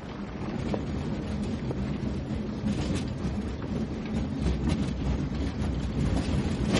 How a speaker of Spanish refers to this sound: Dos hombres pasan de largo empujando un carro sobre el que hay un ataúd metálico. Lo sigue una mujer que arrastra una maleta. Van hacia el ferry.